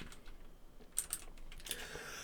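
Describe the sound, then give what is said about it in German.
Quiet, irregular clicking of someone typing on a computer keyboard, a few sharper keystrokes standing out from softer taps, with no talking. “Genau, macht euch auf eine Menge Tastatur gefasst.”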